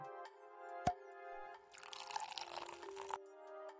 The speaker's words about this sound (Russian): Я буду вести этот подкаст с бутылочкой вина. Поэтому каждый раз, когда вы услышите этот приятный звук